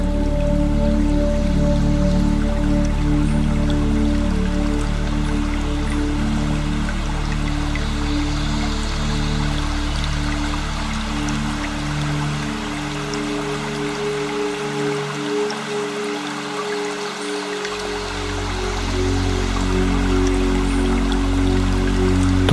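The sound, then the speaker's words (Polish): A small stream warmed by the sun's rays flows gently and steadily, its soft continuous rush and trickle filling the scene, with no voices present. “szum małego strumienia ogrzewanego promieniami słońca.”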